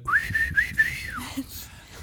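A person whistles a short melodic phrase, a steady bright tone with a few held notes that glides downward at the end, moderately loud with no talking.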